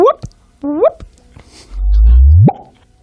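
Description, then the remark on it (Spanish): A voice imitates the chirp of gravitational waves turned into sound, standing for the sound of a wormhole disappearing: two short rising vocal whoops, then a loud, low rumbling hum that swells and sweeps sharply upward in pitch before cutting off. “ese era el sonido de desaparecer el agujero de gusano.”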